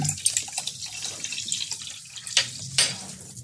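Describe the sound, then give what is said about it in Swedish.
Water splashes and trickles steadily as it is poured into a glass, with a few brighter gurgling surges near the end. It is moderately loud, with no voices. “Hur vattnet låter när man häller upp det.”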